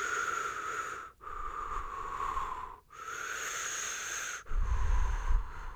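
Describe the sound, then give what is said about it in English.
A person imitates labored, heavy breathing: several long, raspy, wheezing breaths in a steady rhythm with brief pauses between them, fairly loud, with no talking. “like I was just focusing on breathing. Like that's all I could do was focus on breathing.”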